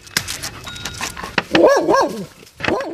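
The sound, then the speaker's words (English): Four dogs, Coco, Sky, Chewy and Lexi, bark and yelp in short, excited bursts at a home in Buckinghamshire, with a cluster of high, wavering yaps in the middle and a few sharper barks around it, no talking. “Who are the four dogs you've come to greet us?”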